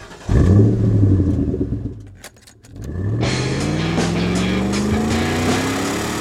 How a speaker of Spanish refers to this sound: Richard Ramírez conducía un auto robado por la autopista de Los Ángeles.